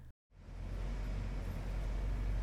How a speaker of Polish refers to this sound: Autobus jechał dość szybko. Kolejni pasażerowie wysiadali z pojazdu.